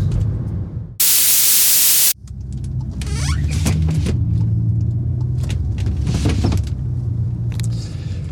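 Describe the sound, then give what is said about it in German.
Loose wooden shelf boards, the kind used to build Kallax and cheap shelving, rattle, clatter and squeak at the back of a moving vehicle over its steady engine rumble, with a brief burst of loud hiss near the start and scattered knocks throughout. “Das, was da hinten so klappert und quietscht und durch die Gegend rumpumpelt, sind Bretter, nicht jene, die die Welt bedeuten, sondern solche, aus denen man Kallax und Billigregale zusammenbastelt.”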